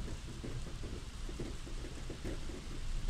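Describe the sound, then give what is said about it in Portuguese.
Heavy rain pours down steadily outside a home, beating against the window, a dense continuous hiss with a deep low rumble underneath, holding at an even loudness throughout with no voices present. “Uma chuva forte cai do lado de fora.”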